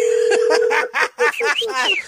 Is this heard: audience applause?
no